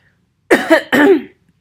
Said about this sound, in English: Okay, hang on. Let me clear my throat.